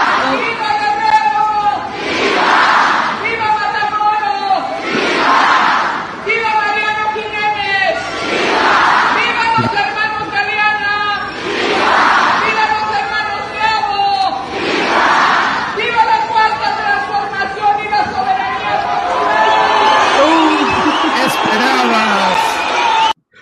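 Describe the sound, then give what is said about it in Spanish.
A Mexican independence shout given by the governor of Guerrero: a single amplified voice calls out and a large crowd roars back each time, repeating about six times in a steady, loud call-and-response rhythm. “chequen ustedes nada más este grito. Les voy a poner tres no me gritos. a poner el de México.”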